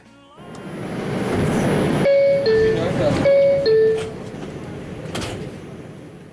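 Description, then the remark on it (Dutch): A New York subway door chime sounds two descending bell-like notes a third apart, then repeats the pair, ringing clearly over the steady rumble and hiss of a train carriage. “Ja, zo klonk het in de ene metro.”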